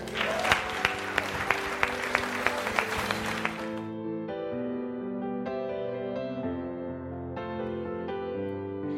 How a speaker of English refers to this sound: So let's give God a hand.